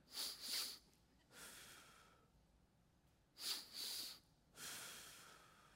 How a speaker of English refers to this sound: Two back to back breaths through the nose and one long exhale through the mouth. It goes like this. If you're stressed right now, breathe with me.